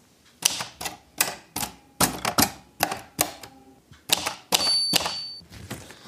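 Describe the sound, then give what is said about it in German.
Rapid, uneven keystrikes on an old mechanical typewriter with dark red keys and white lettering clack sharply, about a dozen in quick bursts, with a bright bell-like ding near the end and no talking. “Und ähm, naja, man muss ja sagen, die Schubkantur sind ja zum Teil oft ein Muss und schauen auch irgendwie an der Schreibmaschine ziemlich fehl am Platz aus.”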